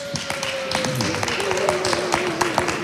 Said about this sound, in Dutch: Mensen, mag ik nogmaals een hartelijk applaus voor de winnaars de ondernemerscollectief Mel.